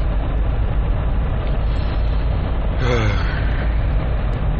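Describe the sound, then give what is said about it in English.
Constant low road rumble from inside a jeep driving home, a loud, steady wash of tire and engine noise that never lets up, with a brief faint vocal sound midway. “So if you hear some rumbling in the background or some noise, it's literally the road.”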